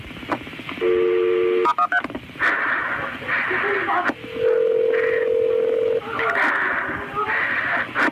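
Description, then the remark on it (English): Telephone dialing tones as an emergency call about a shooting is transferred to the ambulance service: a steady electronic tone, then a longer sustained one a few seconds later, over a crackly phone line with muffled voices in the background. “Let me connect you to the ambulance service.”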